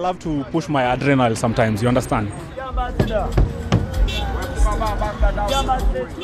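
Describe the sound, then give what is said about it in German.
A matatu minibus weaves through busy city traffic, its low engine rumble and road noise loud, with scattered knocks and clatter. Voices talk over the first part before the traffic takes over. “Die Matatus schlängeln sich überall dazwischen, wobei Schlängeln noch zu elegant klingt.”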